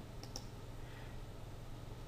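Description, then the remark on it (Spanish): A computer mouse clicks once with the black arrow selection tool selected, a quick, light double tick from press and release over a quiet electrical hum, with no talking. “Si yo con la, teniendo seleccionada la flecha negra hago clic, solamente un clic,”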